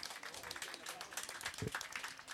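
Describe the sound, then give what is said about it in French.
A crowd applauds steadily as a prize winner comes up to receive her award, many hands clapping in a dense, continuous patter at moderate loudness for a couple of seconds. “Voilà, on peut l'applaudir.”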